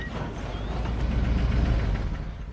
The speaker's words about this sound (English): Later that afternoon, the truck pulled up outside the little house in the suburbs.